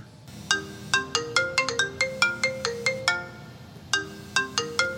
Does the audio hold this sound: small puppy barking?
no